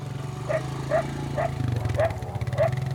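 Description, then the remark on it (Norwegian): A dog named Rino barks five times in an even rhythm, about twice a second, with short sharp barks. It runs alongside an ATV gathering a scattered reindeer herd on a clear autumn day, over a steady low rumble in the background. “har med seg hunden sin, Rino, som sprenger ved sida av.”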